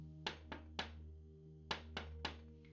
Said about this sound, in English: The three little fish had just finished lunch when they heard the big bad shark knocking at their door.